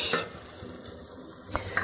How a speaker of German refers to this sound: Ich gucke nochmal eben nach dem Sauerkraut. So, ihr hört das, kocht.